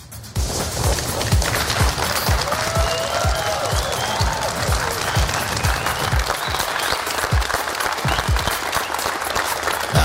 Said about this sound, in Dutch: Groot applaus natuurlijk.